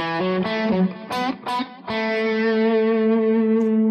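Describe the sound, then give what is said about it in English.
A distorted electric guitar plays a quick major pentatonic phrase of several notes, then settles on one long sustained note that rings out to the end, with no talking. “Well, if I play that again, and play major pentatonic, gets more of a kind of a southern rockish or maybe a, a little more country sound, maybe.”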